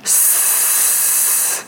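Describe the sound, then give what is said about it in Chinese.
A single steady hiss of a little snake, a loud breathy high-pitched rush lasting about a second and a half, starting abruptly and tapering off at the end, with no talking. “是小蛇”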